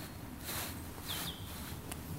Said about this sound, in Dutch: En daar zit een zanglijst, die zit daar, die zitten vaak boven in een boom. Dus dan moet je in de boomtopjes kijken.